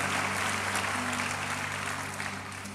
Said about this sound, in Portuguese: Vale a pena você aplaudir o Senhor só por esse texto bíblico.